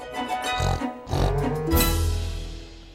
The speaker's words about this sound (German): Habe ich geschnarcht?